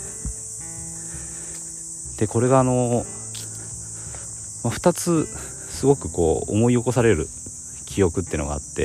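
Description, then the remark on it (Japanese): Cicadas drone steadily outdoors, a continuous high-pitched buzzing that runs beneath a woman speaking calmly, with short pauses between her phrases. “ちょうど今あの外でセミが鳴いていてこれもまあ夏っぽい感じがするのでちょっと外で、えー、とお話をしてます”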